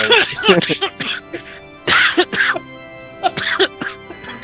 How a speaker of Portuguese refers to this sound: Puta tossida. Putz. Perfeitamente compreensível.